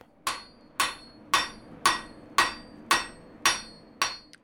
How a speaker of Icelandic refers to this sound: Við rifjum upp eldra viðtal úr sögumalandi frá árunnu 2018 þar sem Dagur Gunnarsson fylgdist með eldsmið að störfum.